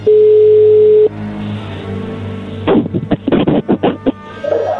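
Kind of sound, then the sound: signal or alarm, phone call ringing tone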